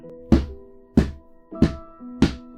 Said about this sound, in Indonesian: Iya, itu suara benda tumpul yang seakan-akan sedang dipukul. Itu dari gedung lama juga, tempat sebelumnya ada bunyi yang geser meja. Suara itu makin lama makin keras.